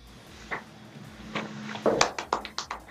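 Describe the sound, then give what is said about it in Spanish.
A handful of scattered hand claps, sharp and uneven at first, then coming quicker in a short burst toward the end. Faint and sparse, more like one or two people clapping than a crowd. “aplausos.”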